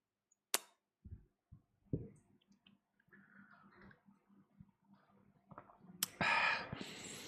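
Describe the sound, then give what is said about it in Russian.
A plastic bag crinkles and rustles: a few sharp crackles first, then scattered softer handling noise, ending in a louder burst of continuous crinkling. No one speaks. “Я вообще не знал, вообще не знал, не знал, что пакет может издавать столь длительный шум.”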